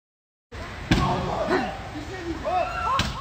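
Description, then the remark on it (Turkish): A man's fist pounds on the window of a car in which his former partner has locked herself, in Seyhan, Adana, Turkey, in a few heavy, spaced thuds, loud, while agitated voices shout and talk underneath. “Aracın camına yumruklarla uyguladığı güç öfkesinin boyutlarını gözler önüne serdi.”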